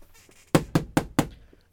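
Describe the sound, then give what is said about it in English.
Four firm, evenly spaced knocks on a wooden door, fairly loud, each a sharp thud with a short decay, followed by quiet. “And about a week after that, a week after that incident happened, there was a knock on the door.”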